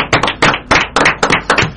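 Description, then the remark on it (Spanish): Brief applause from a small group for a guest at the end of a program: crisp, loud hand claps in a quick, slightly uneven rhythm, with no voices over them. “y bueno, un aplauso acá para nuestro, sí, invitado.”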